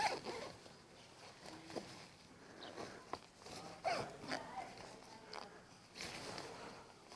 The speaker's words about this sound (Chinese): 然后呢？啊，这个拉链拉开就好了。